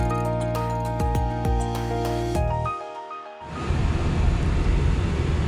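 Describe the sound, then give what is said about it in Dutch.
Steady rumbling road noise from inside a moving car fills the second half, starting after a brief silence that follows a fading tonal hum with a few clicks. No one speaks. “Ja, een podcastje vanuit de auto.”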